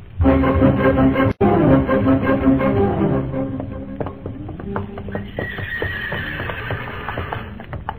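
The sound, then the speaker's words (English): Horses whinny and neigh loudly in the paddock at Churchill Downs, 20 minutes before a big race, their calls overlapping, while hooves clop in a scattered, uneven patter underneath; no voices are heard. “The opening scene is the paddock at Churchill Downs, 20 minutes before the big race where we find El Chico, Johnstown, Technician, Challedon, Heatherbroom, On Location, and all the other entries too in the past.”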